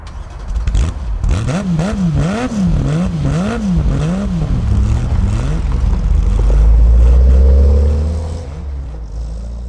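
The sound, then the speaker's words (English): A car engine revs up and down repeatedly in quick surges, then swells into a loud, deep roar as the car is driven away fast on a road in heavy rain, with no voices present. “I suppose we won't be late if you drive really fast?”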